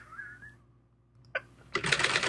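A faint whistling tone and a single sharp click give way to a loud, rapid clatter of typewriter keys being struck, with no voices.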